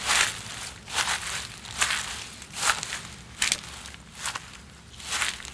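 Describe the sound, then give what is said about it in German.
Steady footsteps crunch and rustle through dry forest undergrowth among large old oaks and beeches, walking toward a gate of colourful stones in a small clearing, about seven crackling steps in an even walking rhythm, moderately loud with no voices. “Ich geh mal hin.”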